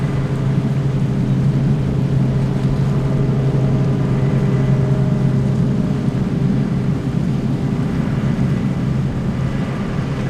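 The tractor-drawn bus Sandormen, a tractor pulling a passenger wagon, arrives on a beach where seals lie, rumbling along with a steady, low engine drone that holds even throughout, over a constant wash of outdoor noise, with no voices.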